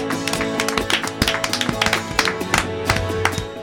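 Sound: applause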